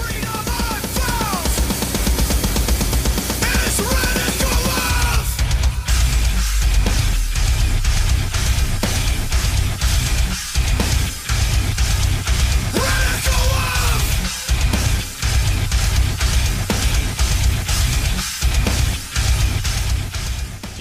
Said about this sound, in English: The only freedom I found. He's like and he's like screaming this, but not like metal screaming. If that makes sense, it's just like he's hardcore. just like proclaiming it. Group shouting